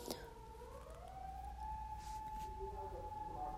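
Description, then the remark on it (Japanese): An ambulance siren wails steadily, its tone sliding and holding as it passes over low traffic rumble, growing slightly louder toward the end. “救急車が通るわお迎えが来てしまった 本当に笑えないから今マジで もう最近うちの周り本当に救急車通り過ぎ怖い”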